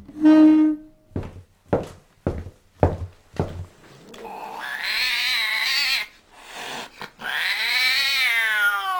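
A short tone and a run of five dull thumps lead into a cat's loud, drawn-out yowling, rising and wavering in long, close cries with a brief break between them.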